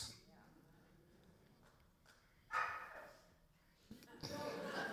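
A dog barks in a couple of loud, sharp bursts close by, separated by a quieter stretch with faint background noise.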